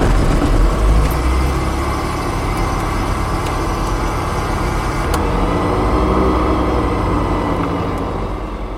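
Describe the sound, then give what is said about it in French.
A small general-aviation touring plane's engine runs up during start-up, a loud, steady low rumble with a rough droning texture, a few faint clicks, and no voices, easing off slightly at the end. “Allons-y pour la mise en route.”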